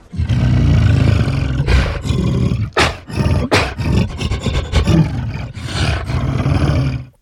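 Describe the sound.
A voice actor imitates King Kong during a recorded interview, letting out a long series of loud, rough, growling roars with brief breathy gaps, the rasping bellows rising and falling over about seven seconds.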